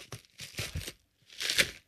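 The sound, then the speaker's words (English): A paper bag holding an apple pie baked in a paper bag, from the Elegant Farmer in Wisconsin, being torn open: two crisp bursts of ripping and crinkling, the second briefly louder, heard alone with no voices. “This is the the ba- the pie baked in a paper bag.”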